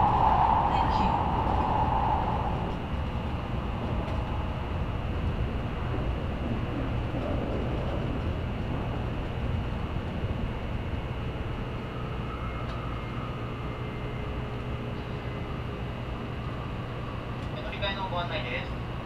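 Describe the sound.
Steady low rumble and mechanical hum inside a moving Tokaido Shinkansen Kodama train, in an unreserved car, travelling from Nagoya to Toyohashi, Japan; continuous and fairly loud throughout, with faint muffled voices and occasional soft chimes in the background.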